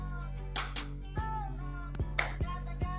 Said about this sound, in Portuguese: Completei três palmas.